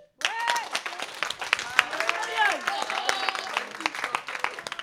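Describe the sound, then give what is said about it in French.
The audience of a Radio Campus Paris show breaks into steady, dense applause that starts abruptly and carries on for several seconds, with overlapping voices calling out and chattering over the clapping. “Applaudissez le public, s'il vous plaît.”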